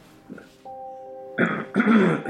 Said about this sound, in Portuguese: O pigarro de quem tem um vício.